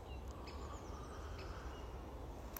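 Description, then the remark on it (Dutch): A few faint, short bird chirps, scattered irregularly over a steady low outdoor hum of distant car traffic, heard while out on a walk. “En dan hoor je een vogel.”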